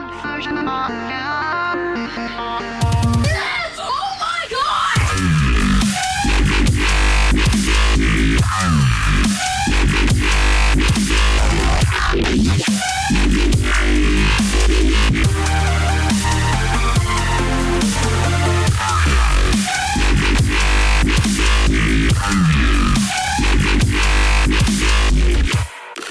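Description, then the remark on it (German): A loud, dense electronic dance track played to mosquitoes in an experiment, with heavy bass, sharp rhythmic drops and gritty synth stabs, beginning with a brief melodic intro before kicking into a driving, aggressive beat. “auf der anderen Seite wurde elektronische Musik den Mücken ähm, gespielt.”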